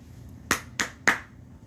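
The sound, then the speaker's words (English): Three sharp hand claps in quick, fairly even succession, crisp, with a low background hum and no voices. “So hand clap”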